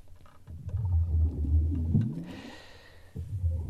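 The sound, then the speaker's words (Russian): Motorcycle engines roar continuously with a deep, heavy rumble over a stadium during a motoball match, their pitch swooping up and down as they rev. The sound is loud and sustained throughout, with no voices. “Ну, а отличает мотобол от всех его собратьев постоянный рев моторов над стадионом.”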